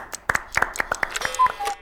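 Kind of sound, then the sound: crowd, applause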